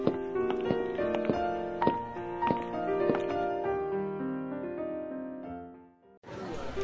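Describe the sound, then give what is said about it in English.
A drum is struck several times at an irregular, steady pace, each hit sharp and fairly loud over sustained musical tones, before the sound cuts to a brief rush of noise. “Strike drum.”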